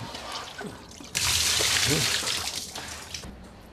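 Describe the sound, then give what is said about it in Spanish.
Water splashes and trickles steadily inside a flooded room, swelling abruptly after a second and continuing loud, with a faint voice murmuring underneath. “Como intento ser bastante ordenado, ahora tengo el placer de que todo esté bajo el agua, pero ordenado.”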